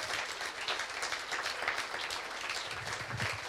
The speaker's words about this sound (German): Gib den Herrn einen Applaus. Preis ihm. Stärke ihm.